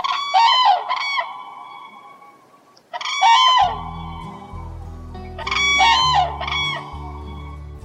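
Common cranes call in three loud bursts of rolling, trumpeting cries, each a quick cluster of honking notes, with a low steady rumble underneath during the latter half.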